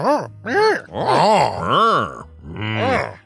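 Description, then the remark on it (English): A voice imitating an angry customer, letting out about five exaggerated groans in quick succession, each swelling up and sliding back down in pitch, loud, with no real words. “Angry customer sounds and all that.”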